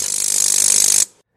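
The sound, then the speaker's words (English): A multi-material 3D printer switches between materials at 50 hertz (50 times a second), making a fast, steady mechanical ratcheting buzz of clicks for about a second, then stopping abruptly. No voices. “To put that into context, this is the sound of the printer switching between materials at 50 hertz or 50 times a second.”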